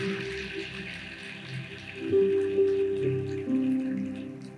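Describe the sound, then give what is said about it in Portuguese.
A crowd claps in a dense, steady patter that swells louder partway through, while held low musical notes, like a keyboard or organ, sustain underneath. “Pode aplaudir, meu irmão. Aplaudo que é para Jesus.”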